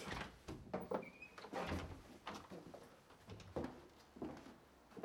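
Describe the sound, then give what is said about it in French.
A door is handled, producing a string of wooden knocks, rattles and thumps over a few seconds, with a brief squeak early on and no one speaking. “Et puis, encore une porte.”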